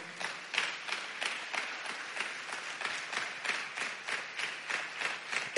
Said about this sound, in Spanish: ¿Cuánto dicen gloria a Dios? Dele palmas al Señor.